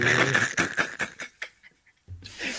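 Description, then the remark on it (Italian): A dog lets out a rapid series of rough barks or pants that fade to quieter huffs, then a brief pause before another loud burst. “eh, quello, de, quello del cazzo di cane, scusate”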